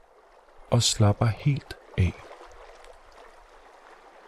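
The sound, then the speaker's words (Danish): Gentle, calm lake water murmurs steadily in the background, soft and continuous, while a voice speaks briefly near the start; the quiet watery wash carries on alone afterward. “Lyden af det rolige vand gør Geo lidt træt.”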